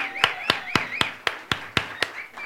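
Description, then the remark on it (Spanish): Audience applause for a guest's parents, who are asked to stand: steady, rhythmic clapping, about ten sharp claps in quick even succession, with faint high chirping tones between the beats and no voices. “así que si se pueden poner de pie, por favor, un aplauso.”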